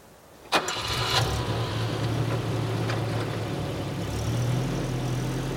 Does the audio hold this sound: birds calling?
no